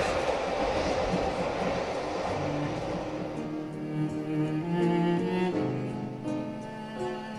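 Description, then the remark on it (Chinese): A subway train runs steadily, starting as a broad, loud rushing roar, then settling into a low rumble with sustained humming tones layered over it. No voices are heard. “那一天我也在地铁里穿行着”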